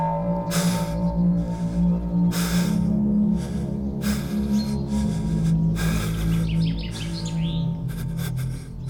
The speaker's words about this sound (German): Toni kniet keuchend auf dem festgefrorenen Boden. Sein Atem bildet Dampfwolken.